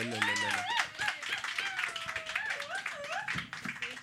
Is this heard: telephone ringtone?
no